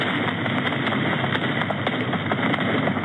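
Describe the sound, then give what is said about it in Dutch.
A dense, continuous barrage of heavy fireworks, a collection set off all at once in Midwolde, Groningen, crackling and popping in rapid succession, loud and unbroken for the whole stretch, with no voices. “Daar gaat dus iets de lucht in. Een verzameling vuurwerk, zwaar vuurwerk.”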